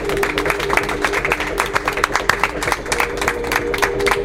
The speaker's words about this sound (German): So, wow, erstmal einen großen Applaus hier.